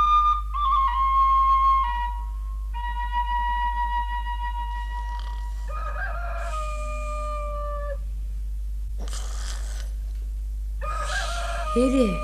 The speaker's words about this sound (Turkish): Horozlar ötüyor. Bana ne horozlar uçuyorsa ötsün varsın.